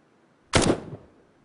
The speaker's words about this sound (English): Take, for example, the sound of a gunshot, which the original sound is less than half a second long.